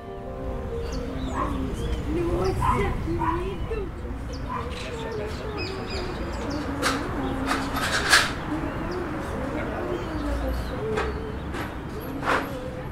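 Birds chirp and call in short bursts outdoors in a tree-filled area of Santa Cándida, 10 km from central Curitiba in southern Brazil, at 7 a.m. on a June austral-winter day of 7 degrees, with doves cooing and dogs barking now and then over a steady background hum.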